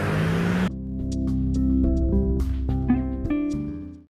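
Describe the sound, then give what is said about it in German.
Ordinary city street traffic flowing again after the road was closed for the president: a brief rush of passing noise, then a steady low engine hum, with scattered clicks and knocks over about four seconds. Nobody speaks. “Also, jetzt sind alle wieder, alle wieder frei und man hört den ganz normalen Verkehr.”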